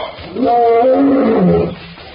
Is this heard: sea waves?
no